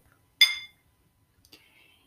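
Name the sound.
glasses clinking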